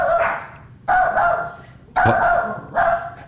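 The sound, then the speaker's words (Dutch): A dog barks four times in quick succession, each bark short, hard and forceful, with no voices around it. “Korte, harde blaffen hebben eigenlijk de functie om te zeggen”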